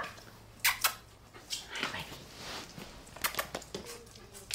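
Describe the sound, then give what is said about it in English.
A 14-year-old black Labrador gives a few short, sharp barks in two small bursts, fairly faint, inside a shop, with no talking. “She's a 14 year old black lab and has been coming for 13 years since she was just about a year.”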